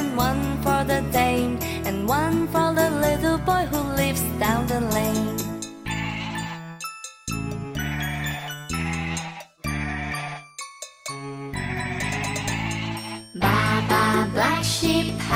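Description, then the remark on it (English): Repeated wavering sheep bleats ring out loudly over bright, jingly music, coming in bursts separated by brief gaps, with no talking. “Baa Baa Black Sheep, have you any wool?”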